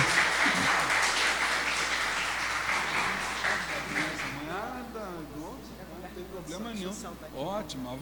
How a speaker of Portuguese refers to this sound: para quem eu peço uma salva de palmas da nossa plateia.